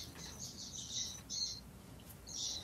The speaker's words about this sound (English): I'm sorry, there's so many birds here.